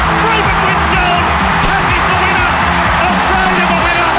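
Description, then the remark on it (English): A huge stadium crowd roars and cheers continuously, a dense, loud wall of voices with whoops rising through the din, enveloping for the whole stretch. “The crowd roaring.”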